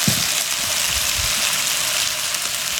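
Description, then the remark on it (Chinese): Chicken sizzles in hot oil, being fried outdoors at an RV campground for curry chicken rice, with a steady, dense crackling hiss that holds at an even loudness throughout, with soft low pops underneath and no voices. “加点油煎鸡肉。”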